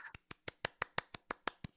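Applause from what sounds like one person: a steady, even run of about ten sharp hand claps in quick succession, fairly quiet, with no talking.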